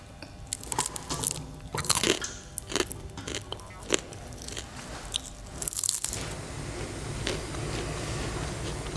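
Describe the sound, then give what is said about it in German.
Crisp crunching as a man bites the head off a grasshopper and chews it at an insect-eating event: a run of sharp brittle cracks over the first six seconds, then softer, steadier chewing with no talking. “war diese Woche beim Insektenessen und hat dabei mindestens einer Heuschrecke den Kopf abgebissen.”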